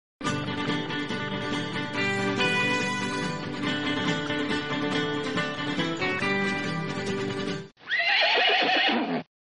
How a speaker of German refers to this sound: Seit wann wiehert der denn? Quatsch, der ist zu Pferde, Mensch.